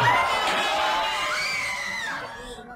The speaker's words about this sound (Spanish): Como gritan en la calle. Y corren en todas las direcciones.